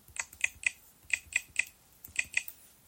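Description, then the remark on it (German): Crisp keyboard keystrokes tapped in short bursts of two or three clicks, fairly quiet, with brief pauses between groups and no talking, as a password is typed to protect an iPhone backup. “Gib ein Passwort zum Schutz deines iPhone-Backups ein.”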